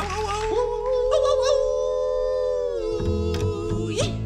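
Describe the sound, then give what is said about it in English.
A long, loud wolf-like howl at the moon rises, then holds a steady wavering note for several seconds, prominent, before a low rumbling accompaniment and a brief upward yip come in at the end, as part of a cowboy song. “We're gonna hoot and holler and howl at the moon.”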